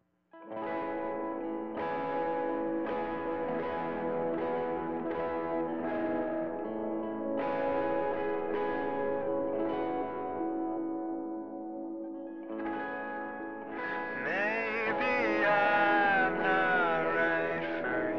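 A newly released band song plays loud and steady, with distorted, heavily effected guitar-like tones and echoing textures, easing briefly before swelling into a fuller section with bending notes.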